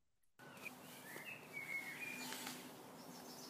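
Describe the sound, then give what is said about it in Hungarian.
Faint, scattered bird chirps over a steady outdoor hiss, with a few short high tweets standing out against the ambient background. No one speaks. “Ezek a madarak. Halljátok, ahogy csinálják”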